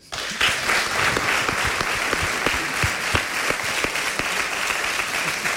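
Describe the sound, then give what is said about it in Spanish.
Sustained applause from an audience, dedicated to Luisa Ortega: a dense steady wash of clapping hands that holds at an even, fairly loud level for several seconds with no voices standing out. “pues que no solamente te vea, sino que este aplauso es para Luisa Ortega.”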